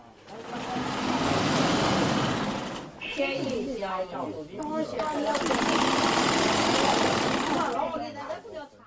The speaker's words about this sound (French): C'est un dépôt séculaire d'étoffes impeccablement empilé. En entendant le ronronnement fatigué d'une machine à coudre antique, Jui fait un voyage dans le temps.